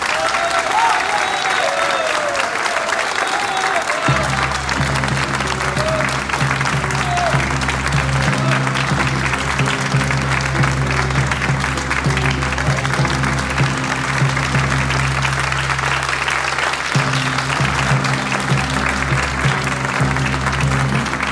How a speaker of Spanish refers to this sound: Y aplaudan, ¿qué espera! La comedia ha terminado.